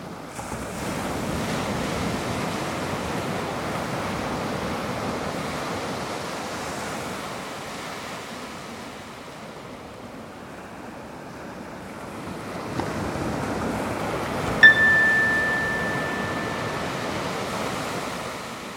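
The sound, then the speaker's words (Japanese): Continuous ocean surf rolls and washes onto a beach, swelling louder toward the end, when a single bright chime rings out briefly over the steady roar of the waves. The chime is sounded at regular intervals during a meditation focused on the wave sounds. “波の音に 意識を向けましょう”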